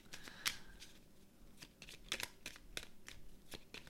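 Cards being shuffled: a string of crisp, irregular snaps and papery flicks over a few seconds, with a soft rustle between them and no talking.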